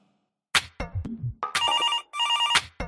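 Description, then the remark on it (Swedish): A phone rings on an outgoing call to Gävle, Sweden, two electronic ring tones in steady succession after a few clicks and bumps of handling, loud, with no one talking. “Eh, så jag tänkte vi ska snacka upp den matchen lite grann och slå en signal ner till Gävle för att stämma av lite grann inför den matchen.”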